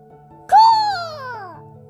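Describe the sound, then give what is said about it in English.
A voice imitates a cat's meow, a single drawn-out, high-pitched cry that rises then slowly falls, fairly loud over a faint steady hum. “But I, can I snake play cat? I do not know, but I can try.”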